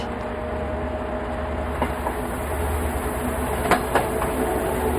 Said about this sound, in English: So we're seeing the train leave what is presumably a stop, maybe the train yard, right? Yeah. Okay. Yeah, and it's like we're looking out the window at the very front.